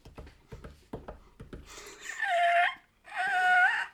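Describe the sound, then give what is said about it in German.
A small dog, very far away, whimpers in two drawn-out, high, wavering whines, each lasting under a second. A quick run of sharp taps or clicks comes before them, and no one speaks. “Nein, das ist ein, das ist ein kleiner Hund.”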